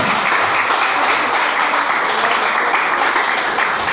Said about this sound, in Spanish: Denle un aplauso a Cristo, por favor, esta mañana.